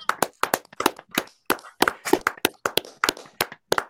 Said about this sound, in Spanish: yo quiero que le demos un fuerte aplauso a nuestro colega … que acaba de llegar, brother.